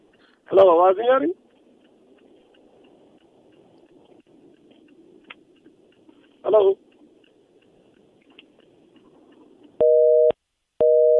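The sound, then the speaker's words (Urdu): A telephone busy tone after a caller's line to a Radio Ahmadiyya call-in programme disconnects on air, steady beeping pulses starting near the end, preceded by brief bursts of voice-like sound and a low background hum. “چلیے فون مجھے لگتا ہے کہ منقطع ہو گیا ہے”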